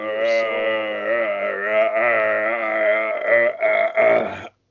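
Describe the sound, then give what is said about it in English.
A long, loud, drawn-out burp rumbles continuously for over four seconds, its deep tone wavering and breaking into a few rougher bursts before cutting off abruptly. “the one dude's like, "You must burp from deep within."”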